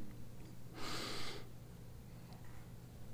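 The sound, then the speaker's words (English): A single harsh, strained breath, voiced by a person imitating the labored final breathing of someone dying on their deathbed, rasps for about half a second and then gives way to quiet low hum. “In those final moments, you hear breathing.”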